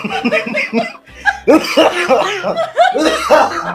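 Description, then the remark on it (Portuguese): A run of rough coughs in quick bursts, mixed with breathy laughter, several sharp fits over a few seconds. “Essa tosse não é minha, não.”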